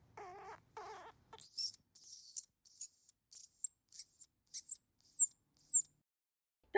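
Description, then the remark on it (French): A baby squirrel gives about eight shrill, piercing cries in a steady series, each a short downward-sliding squeal, clear, after two lower, softer chattering calls. “Et voilà les cris stridents d'un bébé.”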